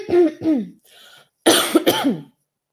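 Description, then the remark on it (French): A series of loud coughs: two harsh bursts, a brief quieter pause, then two more forceful coughs with a raspy, throaty edge, all from one person with no speech. “Je vais tousser.”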